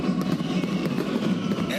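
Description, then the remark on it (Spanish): Firecrackers and the closing fireworks of the 2022 Caribbean Series in Santo Domingo pop and crackle in quick, irregular bursts, layered over a steady murmur of a large outdoor crowd with voices talking. “esos petardos todavía son los fuegos artificiales de clausura de esta gran serie del Caribe Santo Domingo 2022.”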